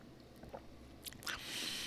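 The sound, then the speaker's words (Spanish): Someone takes a sip of tea: a couple of soft wet clicks, then a quiet, airy slurp that lingers for a moment. No one speaks. “Voy a tomar un sorbo de té.”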